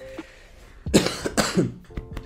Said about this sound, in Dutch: Sorry, ik ga weer moeten hoesten. Dat is echt gewoon